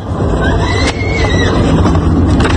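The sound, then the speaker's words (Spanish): A girl screams during a robbery in Monterrey, recorded by her mother, in high, wavering cries that rise and fall, partly buried under a loud, steady rumbling noise that runs throughout. “Oigan el ruido, oigan cómo grita la niña o la, muchacha.”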